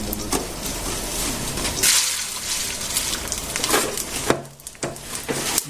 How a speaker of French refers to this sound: je te dis que c'est des céréales qui croustillent. C'est une idée géniale, hein.